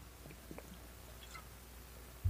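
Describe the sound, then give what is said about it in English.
Someone takes a quiet drink of water: a few soft wet gulps and swallowing sounds, then a brief louder bump at the end. No one speaks. “I'm drinking it in the middle of the show to stay hydrated.”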